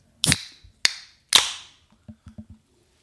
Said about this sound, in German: Und ich mache mal die nächste Dose auf, würde ich sagen.